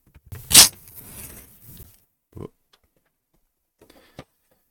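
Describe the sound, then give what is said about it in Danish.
A page is torn out of a book in one sharp tear that trails into a longer crinkly rip. A few soft paper rustles and taps follow in the quiet. “Og så river jeg den ud, og så må vi se, om vi kan høre det her.”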